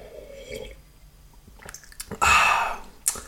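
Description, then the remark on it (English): A noisy slurping sip of hot black coffee, without milk or sugar, lasting about half a second, preceded by faint mouth clicks and followed by a brief swallow-like click, with no talking. “I'm just going to take a quick sip of my black coffee as per usual.”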